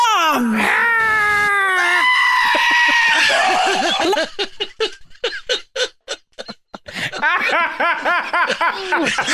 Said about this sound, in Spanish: No sabía que la cabra estaba ahí. Sincer, te juro que no sabía que la cabra estaba al final de ese video.